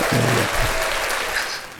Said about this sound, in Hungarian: Ez egy tapsot érdemel.